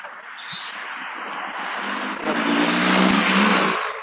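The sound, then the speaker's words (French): Large police motorcycles rumble past, a loud throaty engine roar that builds and swells toward the end, with no voices over it. “Il y a des grosses motos de policiers qui sont passés.”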